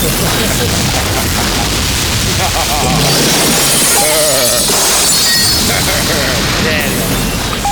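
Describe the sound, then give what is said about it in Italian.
A loud bazooka-like blast erupts into a long, roaring explosion full of shattering, crashing debris, sustained for several seconds, with a voice briefly audible amid the chaos. “Cioè, cosa intendi quando dici stai attento al bazooka?”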